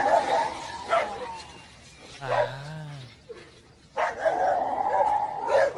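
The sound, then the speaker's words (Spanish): In a played audio recording, a deep, drawn-out roar-like growl that sounds like fury rather than pain rises and falls for about a second, set among the barks and whimpers of agitated dogs, in a noisy, rough-sounding recording. “Escuchen cómo cambia ahora a un tipo de rugido.”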